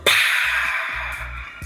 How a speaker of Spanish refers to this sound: Y después, eh, el reverb, la reverberancia, es como eso que se escuchaba en el track recién